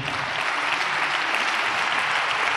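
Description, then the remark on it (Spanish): A church audience applauds in praise of God, a dense, even wash of many hands clapping steadily with no break, loud and sustained throughout, with no voices standing out. “Denle ese aplauso a Él, por favor.”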